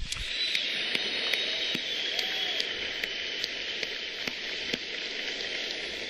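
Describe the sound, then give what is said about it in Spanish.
An audience applauds the interpreter translating the talk, steadily for several seconds, a dense wash of clapping punctuated by a few sharper individual claps, with no voices over it. “Vamos a aplaudirlo en este momento.”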